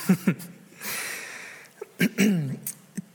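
A person coughs in short, sharp bursts: a quick pair, a long wheezy breath in, then another harsh cluster and a final single cough.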